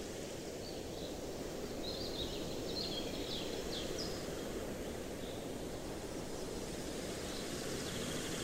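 Steady wind rushes through the Black Forest, with faint, scattered bird chirps high above it for a few seconds before fading back into the constant breeze.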